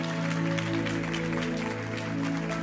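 An audience applauds Jesus with steady, dense clapping that holds at an even level throughout, over a sustained keyboard chord humming underneath.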